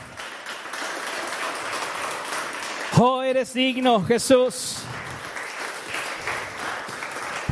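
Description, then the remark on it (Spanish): A church audience applauds the Lord in a steady, dense wash of clapping that lasts the whole time, while a voice rises briefly over it midway, speaking with emotion. “Aleluya, dele un aplauso al Señor, Él es bueno.”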